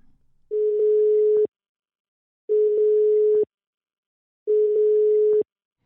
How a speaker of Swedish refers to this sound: Vi ringer upp honom.